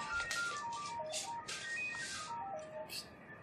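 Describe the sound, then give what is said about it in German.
A landline telephone rings with an electronic melodic tone, repeating short descending phrases of beeping notes at moderate volume, with some rustling noise in the background. “Telefon klingelt. Ah. Wer ruft denn heute noch auf Festnetz an?”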